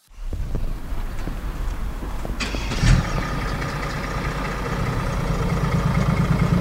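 A diesel car engine runs with a steady low rumble, briefly revving up partway through before settling back into a continuous idle, with no talking.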